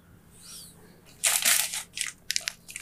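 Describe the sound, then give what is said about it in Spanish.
Discarded stiff photo prints are folded and crumpled, a loud crackling burst that breaks into several shorter crinkling rustles, with a faint high whine and quiet hum underneath. “Puta, prefiero tenerlas en calidad y en resolución para para ver qué cosa me sirve, qué cosa no, y las doblo, las hago mierda, así.”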